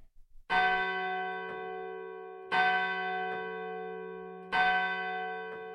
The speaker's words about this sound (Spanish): En el momento en que se oían las campanadas de la hora, golpearon a la puerta de la calle.